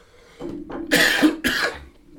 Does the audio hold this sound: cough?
yes